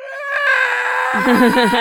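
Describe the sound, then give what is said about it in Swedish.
A voice imitates the shrill, piercing, very loud scream of a character whose scream shorts out the Maximals, held loud and strained for a couple of seconds, wavering as it goes and breaking into rougher, choppier bursts toward the end. “Kan, kan någon försöka sig på det här skriket?”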